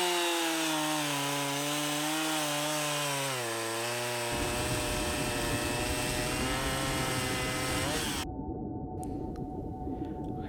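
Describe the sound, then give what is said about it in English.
A chainsaw engine revs up and down, then roars into a loud, steady, raspy buzz that drones on continuously before turning muffled near the end, with no voices. “There's a 100% chance you lose another finger on my chainsaw.”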